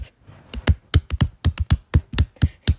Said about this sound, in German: Kevin, Applaus an dich